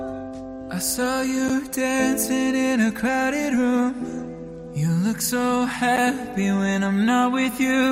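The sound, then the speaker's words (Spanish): A pop song cover plays loud: a lead vocal sings a melodic line over sustained keyboards and steady backing instruments, running continuously with a brief dip in the middle. “Vamos a por más versiones”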